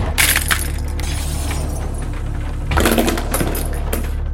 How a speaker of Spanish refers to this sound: Lanzaban y quebraban platos.